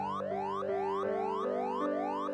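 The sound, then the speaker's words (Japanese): A security alarm, set off by a malfunction of the security system, suddenly blares with repeated rising electronic sweeps, each lasting about half a second, over a steady sustained tone, loud and continuous with no voices. “いきなり警報音が鳴った”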